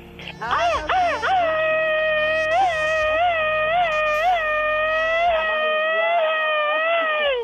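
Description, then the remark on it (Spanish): A child lets out a loud, sustained, high-pitched scream that wobbles in rapid, repeated pulses, like a stuttering machine-gun burst, lasting several seconds without a break; the show's daily 'machine-gun scream', here for a birthday girl. “Es bien galla esta criatura, ¿verdad, señor diario, diario sale con su grito ametralladora.”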